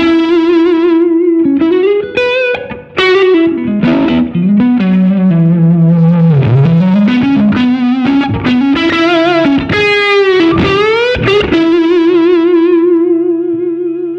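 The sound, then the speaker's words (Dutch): A distorted electric guitar plays a sustained, wavering melodic line with harmonically rich overdrive, its gain raised by an expression pedal, bending and sliding between notes, loud and alone with no talking. “En die zit aan, die, aan dat expressiepedaal vast en dan kan ik de gain omhoog Juist.”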